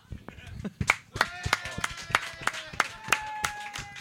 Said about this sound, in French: Il y a quand même plus de monde que je pensais qui ont applaudi. Ben, il y avait beaucoup de filles aussi.